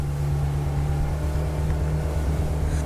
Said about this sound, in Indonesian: Tetapi aku mencoba menghadapi suara permukaan laut yang dibelah perahu motor itu. Tak terlalu lama, perahu motor terasa melambat.